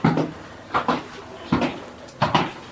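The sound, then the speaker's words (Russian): Heavy, clunking footsteps in stiff ski boots being tried on, four hard knocks at an even walking pace on a hard floor, with no talking. “Ходим в течение 5-7 минут. Да, ходить в горнолыжных ботинках – это очень забавная вещь.”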